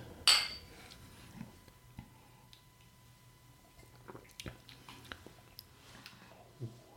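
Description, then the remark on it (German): A sharp, bright clink of glasses in a toast right at the start, followed by quiet sipping and swallowing of a gin-liqueur drink mixed with fruit and ginger ale, with small scattered clicks and mouth sounds, and no talking. “das stoßen wir jetzt mal an, oder? Prost”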